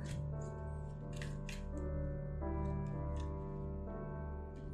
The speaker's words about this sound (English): Bear with me, guys. I'm just shuffling, seeing if I can find a card. Seeing which card wants to pop out.